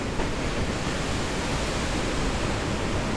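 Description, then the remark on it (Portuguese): A continuous, dense roar of surf washing onto a beach, steady and fairly loud for a few seconds, with no distinct swells standing out and no voices. “E aí, vamos viajar para a praia?”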